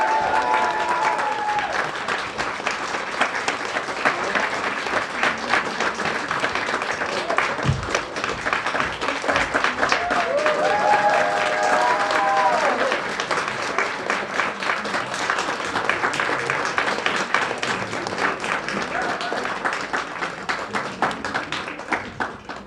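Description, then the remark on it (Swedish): Sustained audience applause for a junior-category contestant coming on stage: a dense steady roar of many hands clapping at fairly even loudness for over twenty seconds, with faint whistles or cheers rising briefly above it. “Bra, håll applåden uppe nu för Emelie.”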